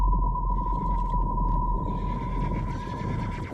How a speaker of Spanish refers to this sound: Los caballos.